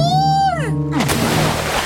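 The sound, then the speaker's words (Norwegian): A high wailing tone slides steeply downward, then something hits water with a loud splash whose churning spray carries on for about a second. “Ai, jeg, jeg faller i vannet! Sjiraff over”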